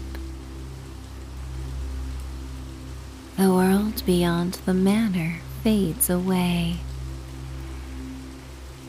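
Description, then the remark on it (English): Steady rain hisses evenly throughout, a soft continuous wash in the background, while a calm voice speaks briefly over it in the middle. “and you're left with the faint sounds of your breath and the rain's constant serenade.”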